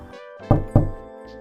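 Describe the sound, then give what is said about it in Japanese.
Two quick, firm knocks on a door, fairly loud, spaced about a quarter second apart, with soft sustained music playing underneath. “物事の状態や音を言葉で表すこれがオノマトペですドアをノックする音”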